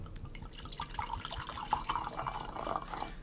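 Liquid splashes and trickles into a glass, with bright gurgling drips rising in pitch over a few seconds, fairly quiet, with no talking.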